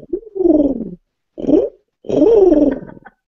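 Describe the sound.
A person imitates a cooing pigeon with three throaty, warbling coos: a long one, a short one, then a longer rolling one, fairly loud with brief pauses between.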